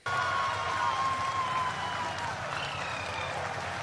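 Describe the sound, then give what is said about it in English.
Sustained applause from an audience, a dense, steady wash of clapping that holds at an even loudness for several seconds, with a faint high whistle-like tone drifting through. “people are applauding.”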